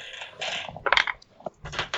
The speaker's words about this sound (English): You can use that skill. Roll, roll your dice.